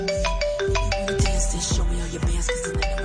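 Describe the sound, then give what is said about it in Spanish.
A phone ringtone plays a bright, repeating electronic melody with steady rhythmic beats underneath, loud, with no one talking over it. “a ti saludos y solo el teléfono, miércoles.”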